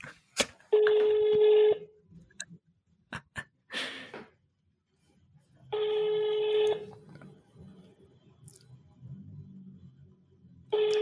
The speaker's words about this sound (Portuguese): Olha, está a ligar. Portanto, estou a ligar para o Miguel Moreira. Está em alta voz.